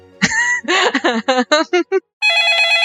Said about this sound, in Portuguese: ah, que telefone chato.